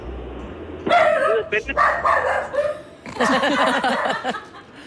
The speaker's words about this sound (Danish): Der er hund i huset.